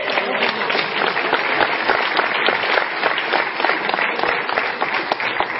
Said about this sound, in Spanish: Aplauso al maestro del té.